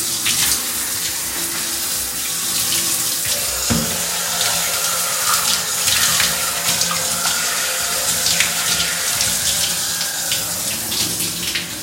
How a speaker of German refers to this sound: genießt einfach die Duschatmosphäre. Ja, so wie sie halt ist.